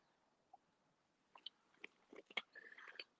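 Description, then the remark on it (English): Quiet mouth noises: a few wet clicks and slurping, gulping sounds clustered over a couple of seconds as someone takes a sip of water, with no talking. “I'm going to take a sip of water first.”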